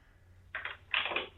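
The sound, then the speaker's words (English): A four-year-old child knocking on a door: two quick clusters of light, rapid raps, the second louder and longer, with no voices. “My my four year old is knocking at the door right now.”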